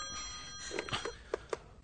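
A telephone rings with a steady, sustained bell tone throughout, fairly quiet, with a few soft clicks and thumps near the end.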